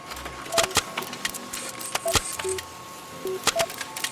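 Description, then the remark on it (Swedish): A printer prints out a page of facts about ice cream: sharp mechanical clicks and clacks at irregular intervals, mixed with brief, mid-pitched electronic beeps over a steady low hum, with no voices. “Då skriver jag ut den till er här.”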